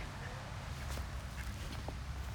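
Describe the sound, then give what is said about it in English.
A duck gives a few faint, short quacks spaced apart, set against a steady low outdoor rumble, with no one speaking. “I'm gonna get a selfie with this duck.”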